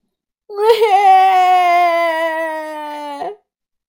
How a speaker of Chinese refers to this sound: 这时，花猫大声哭着回来了。